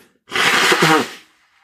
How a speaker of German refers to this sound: Ich muss einmal die Nase putzen, nicht erschrecken.